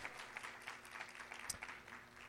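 An audience applauds a man the preacher has called up front, a dense patter of many hands clapping at an even level with no voices breaking through.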